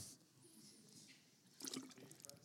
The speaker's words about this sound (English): So let that sink in while I drink some water.